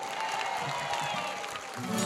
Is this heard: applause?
yes